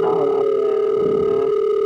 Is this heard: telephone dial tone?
yes